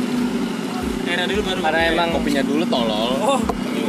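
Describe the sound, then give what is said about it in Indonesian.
Roadside traffic rumbles steadily beneath people chatting at a roadside snack and hangout spot, with low engine noise and passing vehicles forming a constant background hum throughout. “Jadi rada dimaafin kalau emang banyak suara-suara nggak jelas, suara-suara suara-suara kendaraan karena emang ini pinggir jalan.”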